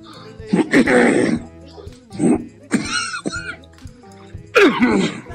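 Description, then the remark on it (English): A man deliberately clears his throat and coughs several times in short bursts separated by brief pauses, the rough, phlegmy sounds loud and forced rather than natural. “I'm working on this trademark cough.”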